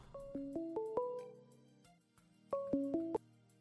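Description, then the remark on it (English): A phone ringtone for an incoming call plays a short rising melody of bright electronic tones, pauses, then repeats the phrase. It is moderately loud, with no one talking. “Uh oh, we have a phone call.”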